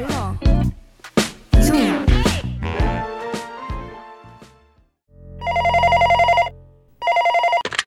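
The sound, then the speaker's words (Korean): A telephone rings in two electronic trilling bursts, loud, after a busy run of musical tones and chimes at the start; the call is a radio listener-ratings survey phone call. “누구에게나 올 수 있는 청취율 조사 전화 받는 법 빠르게 알려드립니다.”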